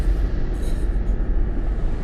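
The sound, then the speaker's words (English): A dull, continuous rumble rolls on in the distance, heavy in the low end like far-off thunder, steady and unbroken for the whole stretch with no voices. “But there's like this dull thunder sort of like shaking in the distance.”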